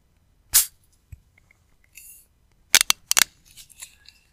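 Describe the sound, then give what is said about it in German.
A plastic capsule cracking open: one sharp snap, a pause with faint rustling, then a quick burst of crisp clicks and cracks. Fairly loud, with no voices. “Das Knacke. Das ist so ikonisch, wenn die Kapsel aufgeht.”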